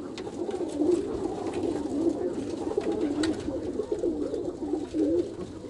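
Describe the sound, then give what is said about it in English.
Several pigeons in a loft coo continuously in low, throaty warbles as they strut about, with occasional soft wing flutters and rustling. No one speaks. “You know I'm saying you guys can tell me in the loft right now in the background, the birds slapping around, strutting and croaking and all that kind of stuff.”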